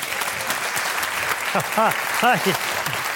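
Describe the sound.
An audience applauds steadily for about three seconds as Peter Heerschop is welcomed, a dense, even wash of clapping, with a few short voiced shouts or calls rising over it near the end.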